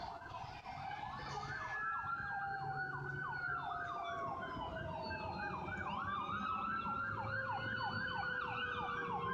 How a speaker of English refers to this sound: Yeah, sorry, ambulance is passing by.